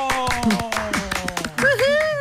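A small group claps in quick, uneven bursts, steady for a couple of seconds, while voices carry on underneath the clapping.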